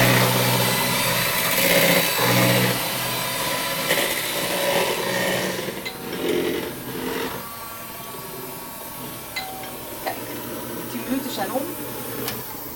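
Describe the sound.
An electric mixer whirs steadily, its motor humming and rattling as it whips eggs into foam during a ten-minute mix, with shifts in pitch as the beaters move and faint muffled voices underneath.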